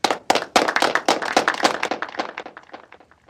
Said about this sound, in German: Applaus dafür bitte.